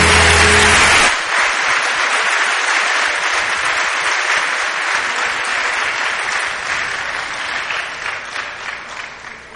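audience applause

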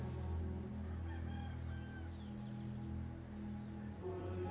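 small bird calling

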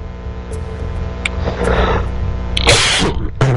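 cough

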